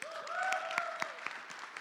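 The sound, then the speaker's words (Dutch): A crowd claps steadily for a couple of seconds, the dense patter of many hands with a few sharper claps standing out, while a sustained cheer rises above it. “Mag ik applaus”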